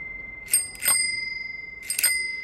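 A bicycle bell rings three times, two quick dings and then a third after a pause, each leaving a bright metallic tone hanging between strikes. It is clear, with no voices.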